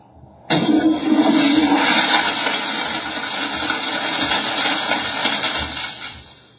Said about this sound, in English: Why does someone have a toilet flushing on um, on YouTube?